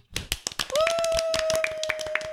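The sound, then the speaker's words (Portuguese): Quick, irregular hand clapping with sharp bright claps, joined partway through by a steady, sustained high-pitched tone, like a held whistle or hooting voice, over the continuing applause. “Batam palmas!”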